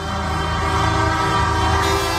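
A loud, brassy vehicle horn blares continuously, close by, playing a short tune in sustained tones with no pauses and no voices.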